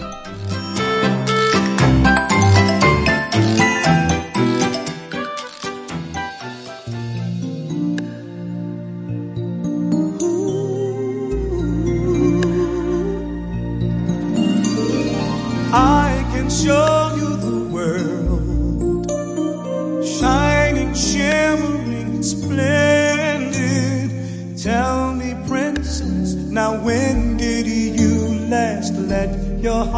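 A lush, orchestral pop ballad plays steadily and prominently throughout, with sustained strings, piano and melodic vocal lines rising and swelling into a fuller passage.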